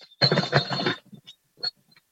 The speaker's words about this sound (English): So we have a volleyball? Yeah, we have a volleyball here that has a bell.